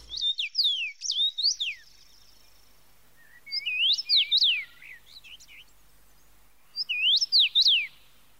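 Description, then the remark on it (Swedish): Soft, whistling common rosefinch song in three short, lilting phrases like 'pleased to meet you', separated by pauses of a couple of seconds, clear against a quiet background with no talking. “En mjuk, vänlig vissling.”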